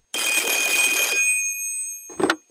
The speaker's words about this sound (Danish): Nå, vi må videre, for telefonen ringer.